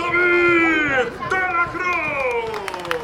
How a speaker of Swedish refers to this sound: David de la Cruz, spanjor, får mycket jubel. Det hör ni här.